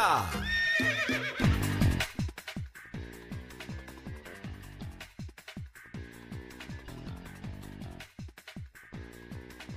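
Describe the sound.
A loud horse whinny opens with a shrill, quavering cry that drops in pitch over about two seconds, then a voice talks steadily.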